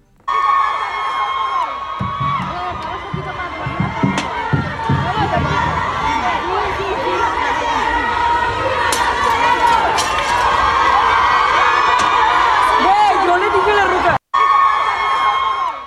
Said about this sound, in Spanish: Vamos a escuchar el momento justo en el que ayer, al filo de las 10 de la noche, irrumpen las mujeres que participaban en estas protestas de los colectivos feministas de Monterrey, irrumpen en el Palacio de Gobierno Estatal.